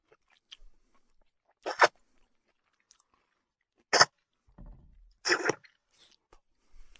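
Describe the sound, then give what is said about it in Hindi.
Three sharp, crunchy chewing bites spaced a second or two apart, with soft mouth sounds in between and no talking: a man eating a big handful of Pindi chole (chickpea curry) from a bowl with his hands. “पिंडी छोले का पूरा कटोरा अब सरदार साहब के हाथों में था देखते ही देखते पिंडी छोले चटक चटक की आवाज के साथ उनके मुंह में चले जा रहे थे”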